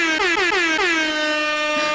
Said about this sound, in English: Have, uh, where's my bell? Well, I've got this air horn.